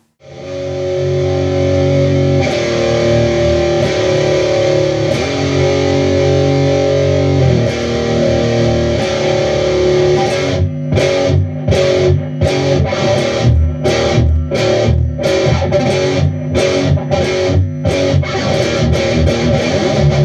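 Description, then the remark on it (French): A heavy, distorted electric guitar riff plays loud and unaccompanied by voices, sustained chords for about ten seconds, then a choppy, stop-start pattern of sharp repeated hits with brief gaps. “Allez, on y va pour ce riff qui fait peur.”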